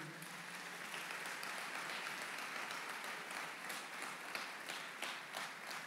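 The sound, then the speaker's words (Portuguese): Sustained audience applause offered to God during a sermon, a dense crackle of many hands clapping steadily for several seconds, fairly even in loudness with no voices standing out. “Dê um aplauso bem forte a Ele.”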